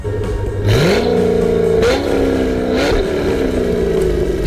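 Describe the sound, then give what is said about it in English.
The engine of Armageddon, a one-of-a-kind wide body pickup with custom 10-inch fender flares and over a thousand crank horsepower on pump gas, revs hard and accelerates loudly, its pitch climbing in repeated surges as it shifts through gears, roaring continuously with no voices. “So let's get revved up.”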